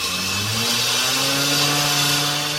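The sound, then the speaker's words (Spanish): A loud, continuous engine roar from machines felling trees in a forest, its pitch climbing steadily as the motor revs, filling the whole moment with no voices. “Era un ruido de motores, un ruido que ahogaba los demás sonidos del bosque.”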